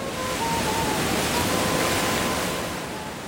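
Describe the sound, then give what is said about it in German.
A steady, full, loud roar of long Pacific Ocean waves breaking on a deserted sandy beach along a highway, washing continuously before easing slightly at the end. No voices. “An einem der menschenleeren Sandstrände entlang des Highways, auf die der Pazifik seine langen Wellen wirft, vertrete ich mir die Beine.”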